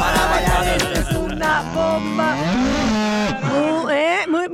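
A loud cow mooing sound effect: drawn-out, bending lowing calls that fill the whole few seconds, prominent, with a busy layered backdrop underneath and no talking.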